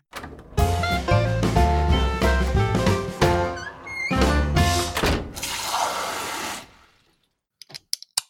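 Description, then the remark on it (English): A can of beer is cracked open in the evening, popping with a sharp crack and a rush of fizzing hiss over a short burst of music, followed by a few small clicks. “That's the sound of an evening beer being cracked open,”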